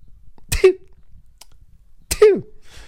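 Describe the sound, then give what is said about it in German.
A voice imitates hay-fever sneezing twice, each a sharp breathy burst sliding into a short nasal vocal tail, about one and a half seconds apart, fairly loud with no talking. “und dann äh, ab und zu mal Augentröpfchen und wieder niesen und wieder schnitzen und so.”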